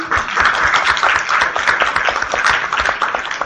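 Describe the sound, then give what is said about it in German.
An audience at a panel discussion held by the Bündnis gegen Naziterror und Rassismus applauds steadily, many hands clapping in a dense, even burst that holds at a fairly loud level for a few seconds with no voices standing out. “Genauso, ja, da kann man wohl klatschen.”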